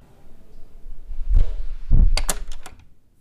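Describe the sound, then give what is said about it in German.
An office door is handled as someone walks through into the next office: two dull wooden thumps, then a quick run of sharp metallic latch clicks, with no one speaking. “So, ich bin jetzt eine Tür weitergegangen in das nächste Büro”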